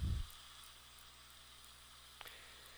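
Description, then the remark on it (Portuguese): Soft, steady rain hiss with no voices, a brief low thump at the start and a faint click near the end; the patter holds at a quiet, even level throughout. “e pouco a pouco esse barulho de chuva vai se acabando”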